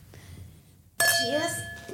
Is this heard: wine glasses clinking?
yes